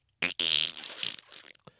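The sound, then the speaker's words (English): A voice blows a wet, buzzy fart noise with the mouth, sharp, sputtering for about a second and a half before trailing off, imitating the squelch of Gak putty being pushed into its container. “Uh, but this shit, you'd put it in the container and it would just go,”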